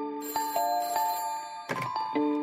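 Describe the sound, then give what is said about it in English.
An old-fashioned telephone bell rings in quick metallic bursts in the middle of the night of November 13th, 1974, an editor calling, its clangs repeating several times over a couple of seconds, loud with no voices present. “Let's go back to the middle of the night on November 13th, 1974, when Joel's phone rang.”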